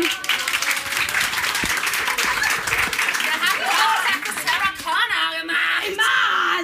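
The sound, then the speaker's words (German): A live audience, asked to clap once, claps steadily and loudly for several seconds while people whoop, cheer and shout over the applause, the noise staying dense and energetic throughout. “Einmal klatschen.”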